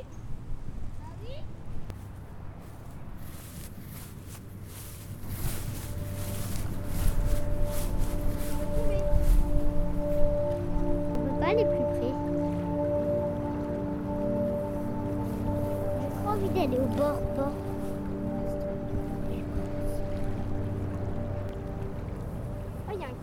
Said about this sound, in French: Vous avez vu la péniche Qui est en train de manœuvrer